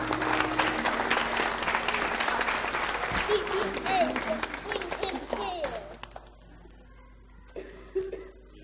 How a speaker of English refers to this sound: round of applause.